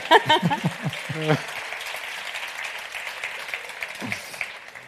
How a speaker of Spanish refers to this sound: Podéis aplaudir si queréis, ¿eh?